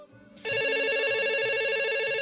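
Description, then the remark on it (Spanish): A telephone starts ringing abruptly with an incoming call, a loud, steady electronic trill, its bright stacked tones pulsing rapidly and continuously. No one speaks over it. “¿Tenemos llamada? Venga, tenemos llamada en este momento.”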